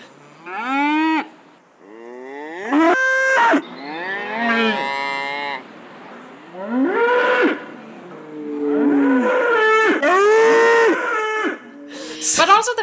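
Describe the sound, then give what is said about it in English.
Several cows moo one after another, loud, their long droning calls overlapping at times, with barely a pause between them across the whole stretch. “Yeah, and cows. Yeah, the cows are really good.”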